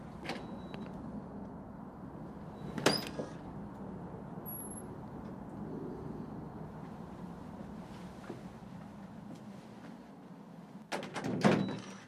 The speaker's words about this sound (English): And when you open the outer door, you put the key in the eye of the small skull, and that's the key plate.